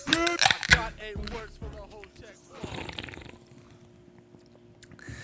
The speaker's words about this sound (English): That is the sound of a couple cans, not necessarily beers, being cracked, and this is the sound of your favorite podcast, The Rookie Show.